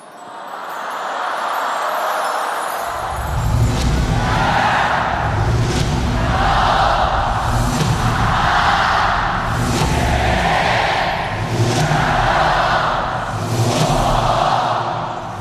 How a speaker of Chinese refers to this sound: 现场观众齐声的倒计时，亚洲文化嘉年华在国家体育场鸟巢拉开大幕。